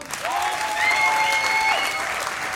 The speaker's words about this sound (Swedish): Det kommer bli en grym jävla improshow. Ge dem en varm applåd!